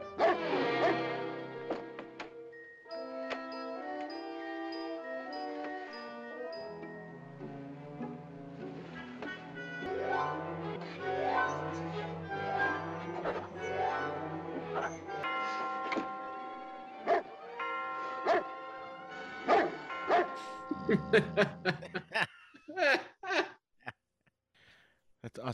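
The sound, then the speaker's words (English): A dog in a Red Skelton film scene, in which Skelton tries to escape the dog and get out of the house, barks, whines and howls almost continuously, the long wavering cries giving way to a quick run of short, sharp barks near the end. “We can't figure a, a funny, interesting way for Skelton to get to escape from this dog and get out of the house on time.”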